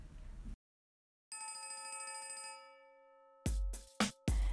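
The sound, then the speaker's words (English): A school dismissal bell rings once, a bright sustained tone that fades over about two seconds, followed by a few loud, abrupt bursts of noise. “And that's the dismissal bell.”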